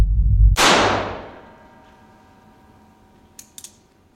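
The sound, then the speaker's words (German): A low rumble cuts off into one loud, sharp crack with a long ringing decay, and then a few quick, faint metallic clicks of a pistol hammer snapping into place. “Der einrastende Pistolenhahn.”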